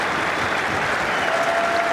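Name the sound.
crowd applause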